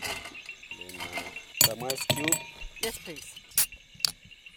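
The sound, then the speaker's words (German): Glass bottles clink a handful of times at uneven intervals, fairly sharp, as gin, tonic water, lemon slices, ice cubes and cups are set out on the hood of a jeep for a sunset celebration at the end of a safari in Zambia, while people talk quietly and insects chirp steadily in the background. “stellt Gin und Tonic Water, Zitronenscheibchen und Eiswürfel auf die Kühlerhaube des Jeeps und Becher hat er auch dabei.”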